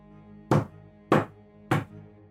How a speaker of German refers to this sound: Ein deutliches Geräusch. Ein langer Fingernagel traf auf Plastik.